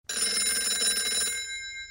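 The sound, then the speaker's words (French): A telephone bell rings with a rapid metallic trill for over a second, then stops and its tone lingers briefly, for a phone call in which a man poses as a judge. Fairly loud, with no voices. “Par téléphone, Steven se fait passer pour un juge”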